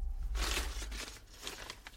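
Newspaper pages rustle and crinkle in a couple of broad, papery swishes as a newspaper is handed over to be read aloud, with a dull rumble underneath and no voices.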